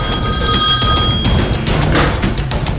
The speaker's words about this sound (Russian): И вдруг зазвонил домашний телефон.